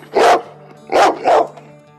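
A dog barks three times, a single loud bark followed shortly by a quick pair, with a faint steady hum underneath and no talking.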